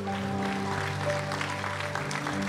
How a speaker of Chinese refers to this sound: 我们一同给主个掌声，好不好？哈利路亚，哈利路亚，哈利路亚。